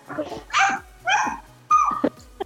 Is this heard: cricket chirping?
no